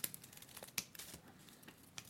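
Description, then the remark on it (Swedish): Paper strips are handled and woven together by hand for a Christmas paper craft, giving soft rustling and crinkling with a few brief crisp ticks scattered irregularly. Quiet throughout, with no voices. “Då Papper måste man ju fläta så här.”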